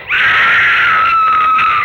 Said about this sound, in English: Scream. Just like the one Nancy made when she was killed.